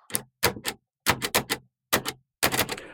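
Heavy old typewriter keys clack in uneven bursts on an old machine in a newspaper's reception room, a few sharp strikes at a time with brief pauses between, each letter heavy to strike down. Fairly loud, with no voices.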